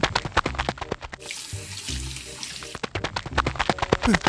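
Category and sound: household object, tap water running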